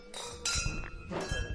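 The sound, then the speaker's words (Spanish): Glasses clink together in a toast in a wine cellar at a restaurant in Punta del Este, Uruguay: three bright, ringing strikes spread over a second and a half, with soft thuds and shuffling in between. “Bueno, salud chicos. Salud, salud.”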